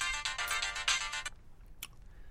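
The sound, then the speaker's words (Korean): A phone ringtone plays a bright, pulsing electronic melody for about a second before the call is answered, then cuts off abruptly, followed by a quiet pause and a faint click. “왜 이렇게 늦게 받아?”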